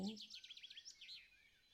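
Birds singing in a quick run of high, warbling chirps, soft, with a brief trace of a voice at the very start.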